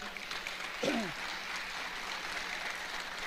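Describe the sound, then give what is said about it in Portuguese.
An audience claps steadily in a dense, continuous patter that fills the whole moment, with a brief voice rising out of the crowd near the start, applauding the couples, reception and communication ministry teams at work. “Aí que vamos aplaudir esse pessoal?”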